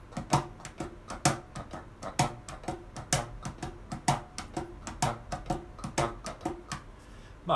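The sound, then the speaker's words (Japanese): A mini cajon played in a 16-beat shuffle: a steady stream of quick, swung hand strikes, deep thumps mixed with sharper bright slaps, repeating in a lilting uneven groove with no voices. “ミニカホンを叩いてみた⑩〜16ビートシャッフル”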